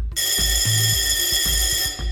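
A doorbell, rung by pressing an enormous red button beside a door, sounds with a loud, bright metallic jangle, held steadily for about two seconds without a break. No voices are heard.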